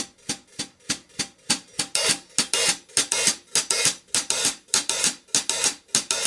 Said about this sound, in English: you automatically get some different sounds and textures just by playing what you would normally play and just keeping your hi hat pulsing time. It does that in the Purdie shuffle too.